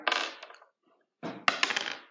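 Dice clatter and rattle across a hard surface in two close bursts separated by a brief pause, the second roll ending in a few sharp clicks as they settle.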